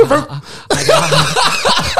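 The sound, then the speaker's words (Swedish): A person imitates a sick two-year-old boy's harsh, barking cough, like a dog's, with a few rough bursts mixed with laughter. The voice is fairly loud. “Och eh, han hostade sig exakt som en hund.”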